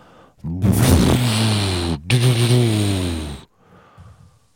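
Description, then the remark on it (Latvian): A voice imitates rumbling thunder with two long, loud, throaty growls, split by a brief pause, then fades to quiet breathing. “Pērkons saka, grandēt.”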